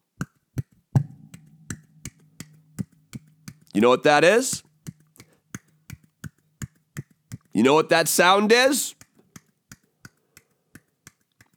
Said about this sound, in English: that's the sound of one hand clapping.